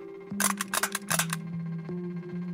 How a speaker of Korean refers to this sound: 이거 뭔지 알지? 어? 그래, 스탬플러.